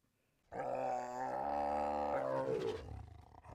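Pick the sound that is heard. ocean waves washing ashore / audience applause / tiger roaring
tiger roaring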